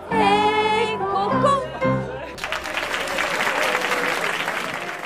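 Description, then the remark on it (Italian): A sung French melody with music ends on held notes, then a noisy crowd at a venue with tables breaks into loud, sustained applause that fills the remaining seconds. “Terminato il pezzo, ringrazio la rumorosa platea.”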